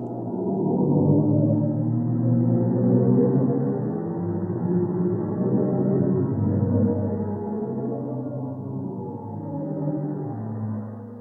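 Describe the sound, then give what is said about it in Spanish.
A sustained, eerie low drone with layered, slowly shifting tones and swelling harmonics, a sonified sound of a black hole in outer space, like a deep cosmic hum, continuous and fairly loud throughout with no voices. “Si respondiste agujero negro, muy bien, es correcto.”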